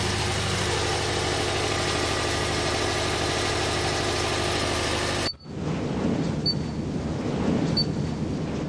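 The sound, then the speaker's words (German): A water-driven electric generator, bought and installed to use water running down a stream, produces electricity with a steady, loud mechanical drone and vibrating hum. About five seconds in, the sound abruptly shifts to a softer, lower rumble. No one speaks. “Dann habe ich mir einen Generator gekauft und einbauen lassen und das bringt jetzt den Strom.”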